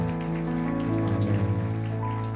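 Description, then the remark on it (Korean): A church audience claps steadily in applause of thanks and glory to God after worship and prayer, a dense crackling wash of applause that holds at an even level over sustained, held instrumental chords for a couple of seconds, with no talking. “우리의 예배와 기도를 받으신 우리 하나님께 감사와 영광의 박수를 올려드립니다.”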